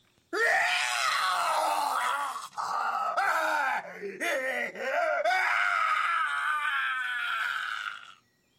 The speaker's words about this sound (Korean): 갑자기 밤의 침묵을 깨는 비명 소리가 들렸다. 나는 그토록 소름 끼치는 소리를 들어본 적이 없었다. 비명 소리가 점점 커지더니 아픔과 공포와 분노가 한데 뒤섞인 섬뜩한 절규가 되어 울려 퍼졌다. 이 절규는 아랫마을에서 심지어 멀리 떨어진 교회에서 잠자던 사람들까지 깨웠다고 한다.